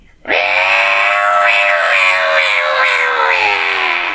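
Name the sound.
voice imitating a cicada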